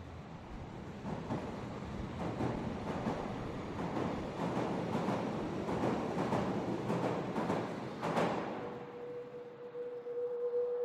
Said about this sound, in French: Pour sa carte blanche, Laura nous immerge en temps réel le long du métro de Hambourg avec le beau moyen métrage de Nicolas Schmitt, First Time.